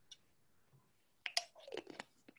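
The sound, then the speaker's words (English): A small crystal knocks and rolls around inside a water bottle, giving a quick burst of light clinks and rattles after a second of near silence. “Sorry, that little tinkle you just heard was my crystal rolling about in my water bottle.”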